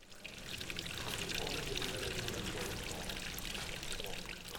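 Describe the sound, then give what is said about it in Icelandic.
Water pours and splashes steadily through 78 funnels arranged on a wall in Pavlo Makov's art installation Fountain of Exhaustion, Ukraine's entry this year: a dense, continuous rushing with bright trickling spatter running throughout at an even, fairly loud level, with no voices. “Verkið samanstendur af 78 trektum sem er raðað í fullkominn fríherning við vegg.”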